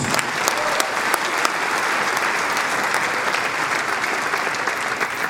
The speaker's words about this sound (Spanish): Amén. Dale un fuerte aplauso.